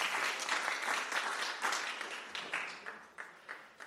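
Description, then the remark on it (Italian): An audience applauds the presentation of a painting and plaque in honour of Ettore Bastianini, with dense, steady clapping that gradually thins out and fades, leaving a few scattered claps toward the end. No one speaks over it. “Un applauso.”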